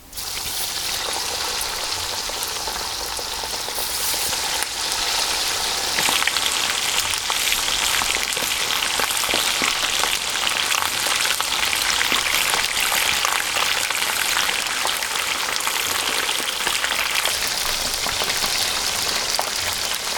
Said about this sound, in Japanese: 今朝はみんな大好き唐揚げのいい音それではお聴きください